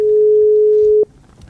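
A steady, single-pitched telephone tone sounds loudly for about a second as a phone call is placed, then cuts off abruptly, leaving faint background noise. No one speaks.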